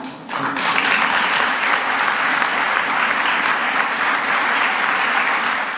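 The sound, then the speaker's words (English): A crowd bursts into sustained applause for an older speaker, a loud, dense wash of many hands clapping that begins abruptly and holds steady for several seconds with no voices over it. “Then they all clapped for the old guy who forgot the commander's name.”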